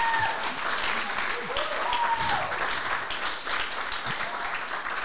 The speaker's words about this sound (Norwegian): Det, det fortjener applaus. Ja, det... Vi er jo tross alt live.